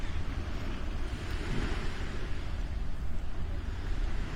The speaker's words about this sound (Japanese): えー、ちょっと波の音が大きく入ってしまうと思うんですがお伝えしたいと思います